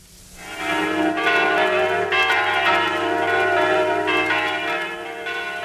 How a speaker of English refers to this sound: Those are the bells of the Church of the Holy Sepulchre in Jerusalem. Each Christmas Eve on our visit around the world, we have heard the sound of these bells,